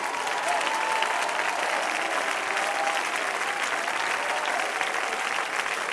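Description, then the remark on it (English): A large crowd claps continuously to give praise to God, a dense, steady wash of applause that holds at an even, fairly loud level for the whole stretch without pausing or building. “Let's clap our hands and give him praise.”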